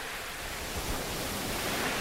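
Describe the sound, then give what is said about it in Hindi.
A steady wash of ocean surf on a beach at night fills the scene, a broad hissing roar with faint swells as waves break and spread on the shore. No voices. “कितनी शांति है ना यहाँ पता है अगर तुम्हें इस शहर के भागदौड़ से दूर जाकर थोड़ा पॉज लेना है तो समंदर के किनारे आके बैठ जाओ”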